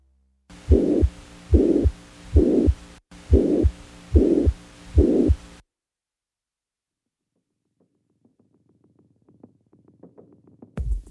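Heart sounds with a systolic ejection murmur, a crescendo-decrescendo whoosh after each thump that peaks in mid-systole, repeating steadily through about five loud beats, followed by silence and a faint low rumble at the end.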